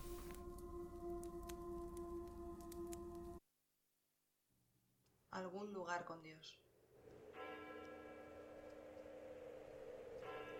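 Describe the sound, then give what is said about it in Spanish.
Church bells toll a death knell for a funeral, a loud, sustained, resonant toll, broken by a brief near-silence and a short fluttering burst before the deep ringing resumes and continues to the end. “tañen las campanas. Lo hacen a muerto.”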